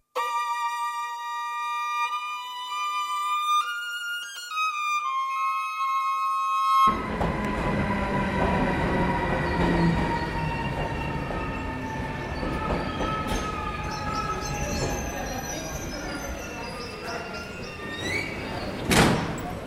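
A few seconds of clear, chime-like tones give way to the loud, rumbling roar of a train at the railway station of Sleven, with rattling and clanking building and a sharp burst near the end. No one speaks.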